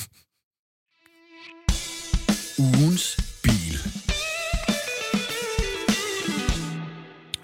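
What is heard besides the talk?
radio show jingle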